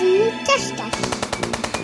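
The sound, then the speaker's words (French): A brief spoken phrase gives way to a loud, rapid stream of machine gun fire, tightly spaced shots rattling steadily for about a second from the rotary machine guns of a giant robot dog. “je ne savais pas qu'il était équipé de mitraillettes rotatives”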